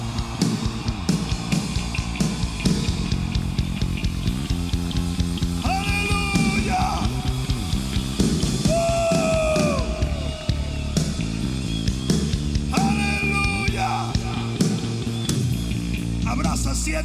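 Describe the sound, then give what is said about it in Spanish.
A crowd shouts and cheers loudly and continuously in praise to God, voices rising in waves over steady background music, with several prominent drawn-out cries standing out. “Ahora dale un grito de gloria al Señor.”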